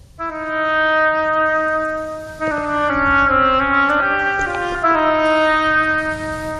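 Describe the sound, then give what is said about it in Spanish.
An oboe plays the duck's theme from Prokofiev's Peter and the Wolf, a slow, reedy melody of long held notes that shift step by step in a lowish register, steady and fairly loud with no voices. “El pato por el oboe.”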